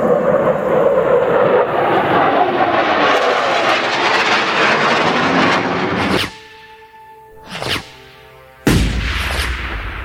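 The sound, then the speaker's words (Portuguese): Army fighter jets fly past at full speed: a loud jet roar sweeps overhead and fades, then two more sharp, fast passes rip through, with a tonal hum lingering between them. “Caças do exército voam a toda velocidade.”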